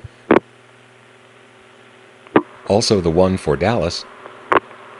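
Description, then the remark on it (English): Sharp mechanical clunks of a number 5 crossbar CCSA tandem switch in Atlanta, on a call to Dallas, ring out three times, spaced a couple of seconds apart over a steady electrical hum, with a voice briefly talking between them. “In this example, you can hear the crossbar 5 tandem in Atlanta making its distinctive sounds.”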